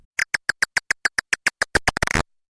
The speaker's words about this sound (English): And here's what a big brown bat sounds like.